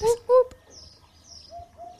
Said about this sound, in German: Wiedehopf Gesang. Wollte ich, äh, wollte ich euch jetzt nicht vorenthalten, dass ihr das mal zu hören bekommt.